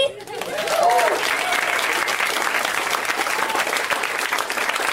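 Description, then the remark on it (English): An audience bursts into sustained applause, a dense, steady wash of clapping that swells quickly and holds loud for the full stretch, with a few faint vocal sounds early on. “Uh, were you just applaud again? Let's hear it from me.”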